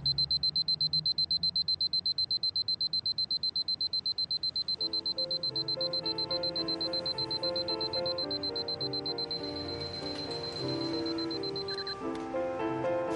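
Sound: alarm clock ringing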